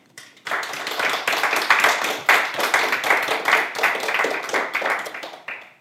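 audience applause

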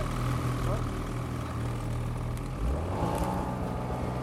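snowmobile engine idling

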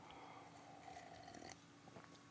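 sipping a beer

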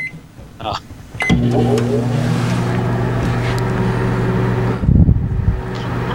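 microwave oven running

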